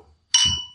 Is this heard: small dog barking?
no